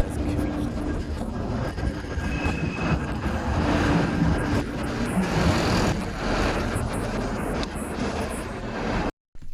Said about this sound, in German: Ich stehe jetzt hier in Köln an einer Hauptstraße. Da haben wir viele Straßenbahnen, die entlang fahren.